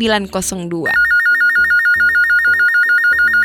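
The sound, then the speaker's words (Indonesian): A phone rings with an incoming call, a steady electronic trill, a rapid warbling tone repeating over a low backing, starting right after a brief burst of voice and sounding loud. “Wah, ini udah ada anak teks yang mau cerita nih. Aku angkat dulu ya.”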